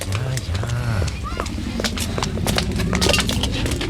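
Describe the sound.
Quick, steady footsteps of several people hurrying along, fairly loud, with brief voices calling out at the start: two boys following the quick steps of a girl.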